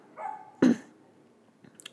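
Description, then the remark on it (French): A dog on a balcony gives one sharp, loud bark after a brief whine-like lead-in, followed by a couple of fainter, smaller sounds; no one speaks. “J'ai dû couper un petit peu parce que j'ai un chien qui, qui aboya depuis le balcon.”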